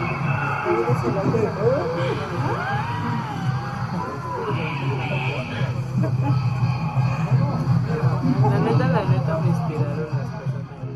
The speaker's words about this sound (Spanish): donde entre el bullicio de la gente que está asistiendo a la isla de las muñecas se escucha un murmullo que justo nos describía él, que lo escucharon hasta que vieron la grabación. Vamos a escuchar.